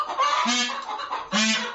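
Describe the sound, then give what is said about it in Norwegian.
Chickens squawk loudly and agitatedly indoors, reacting to a dog, two harsh, drawn-out alarm calls in quick succession with no talking. “De reagerer på hunden her inne.”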